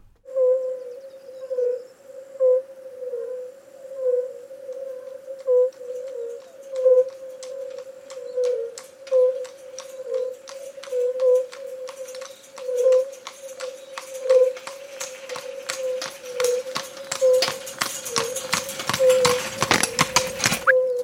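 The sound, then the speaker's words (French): Horse hooves clip-clop in a quick, irregular rhythm that grows louder and busier toward the end, over a steady mid-pitched hum. No clear whinny stands out, and there is no talking. “j'aime bien l'idée que, que les deux communiquent entre eux et que, et que donc c'est- on a cette conversation de chevaux qui inclut aussi l'humain.”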